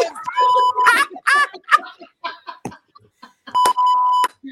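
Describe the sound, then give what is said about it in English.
Two loud, steady censor beeps, each lasting about half a second, cut over a man's speech near the start and again near the end, with talking continuing between them. “Are you beeping yourself?”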